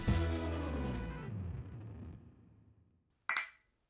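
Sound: glasses clinking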